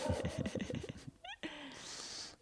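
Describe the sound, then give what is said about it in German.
A cat meows, a short rising cry that stands out after a stretch of busy voiced sound, followed by a soft breathy hiss. “Äh, äh ach, hör auf zu meckern jetzt.”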